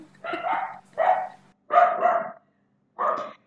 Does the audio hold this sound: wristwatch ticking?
no